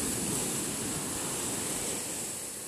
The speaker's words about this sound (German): Du nimmst mich mit, mit jeder Welle, die zurückflutet und der Sand, der unter meinen Füßen von dir hinweggespült wird.